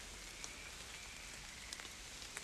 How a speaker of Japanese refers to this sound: こんなに気温も低くて、まあ、雨もそれなりに降っている